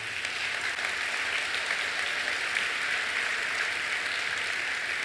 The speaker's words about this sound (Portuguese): Eu peço uma salva de palmas para todas as mulheres que estão aqui.